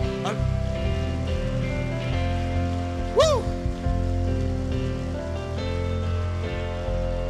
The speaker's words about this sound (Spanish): O oh, si tú lo crees, dar el mejor aplauso que le hayas dado.